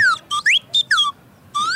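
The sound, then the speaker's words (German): A small, ordinary toy whistle from a whistle shop blown in a quick series of bright, sliding chirps, about five or six short bursts with brief gaps, clear, with no talking. “Ja, ich glaube, der hat normale Pfeiferl. Hey, sind das nur normale Pfeiferl?”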